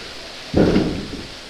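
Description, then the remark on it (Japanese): A single heavy wooden thud of a water-driven wooden mortar (karausu) pounding clay to crush it, a deep dull impact that rumbles briefly and fades, with a faint softer knock after it and no voices. “朝おばさんがこう土を集めて集めてそうするとカラウスの音が変わるとお話ししましたが今は大きな音が鳴ってますねこういう感じで土をつくことによって砕いていって土の音が変わると。”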